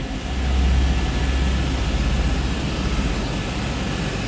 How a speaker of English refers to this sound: She flew by helicopter to a remote corner of the country's massive ice sheet.